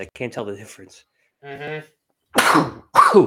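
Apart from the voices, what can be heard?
sneeze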